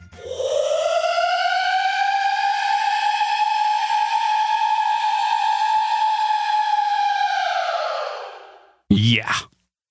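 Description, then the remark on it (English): A time-stretched scream, drawn out into one long, loud, steady wail with a smooth, slightly rising tone for about eight seconds, then fading, followed by a brief separate burst. “it's very, very long. Huge. Huge scream.”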